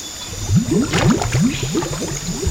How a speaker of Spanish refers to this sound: Unas burbujas emergen en la superficie del río Cunínico, pero no son transparentes, son negras. Bajo la superficie un oscuro y lo expande una densa mancha que no deja de crecer. Petróleo, crudo.